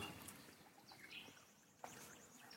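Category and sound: bird, nightingale song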